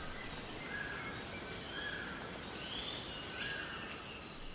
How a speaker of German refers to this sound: Ihr kleines Dorf liegt am Rio Negro, rund eine Stunde von der Amazonasmetropole Manaus entfernt. Hinter den kleinen Hütten des Dorfes erstreckt sich dichter Urwald. Bunte Papageien kreischen in der Luft, Amazonien pur.